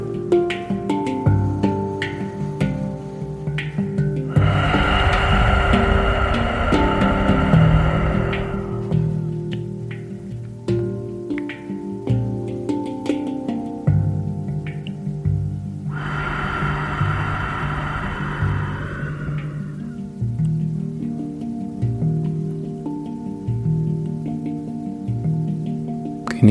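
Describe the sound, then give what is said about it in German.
Two soft, breathy gusts of wind swell and fade over sustained, gentle harmonic music tones, each whoosh lasting a few seconds, with no one speaking. “Genieße diesen Wind über die Ausatmung.”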